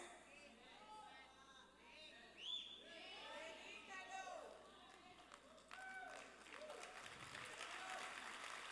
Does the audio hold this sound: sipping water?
no